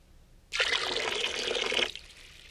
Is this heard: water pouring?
yes